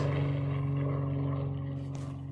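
A low, steady engine drone from an airplane passing overhead, with a strong humming tone and buzzing harmonics that hold constant and fade slightly toward the end. No one speaks.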